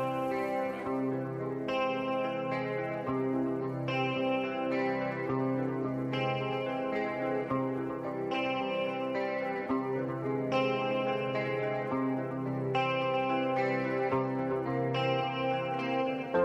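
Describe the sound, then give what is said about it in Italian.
An Italian pop rock song plays steadily with no singing as a short music break on the program Buonasera Düsseldorf, effect-laden, slightly distorted guitars and a warm bass line, its chords shifting about every two seconds at an even, full volume. “E adesso ascoltiamo un po' di musica italiana, ascoltiamo, facciamo un piccolo break.”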